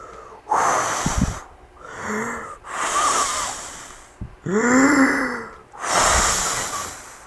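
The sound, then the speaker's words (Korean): A storyteller's voice imitates the wolf huffing and blowing at the third little pig's brick house: five long, breathy blasts with wheezy, strained tones, each swelling loud then cutting off, separated by short pauses. “그럼 이 집을 무너뜨리겠다. 늑대가 입김을”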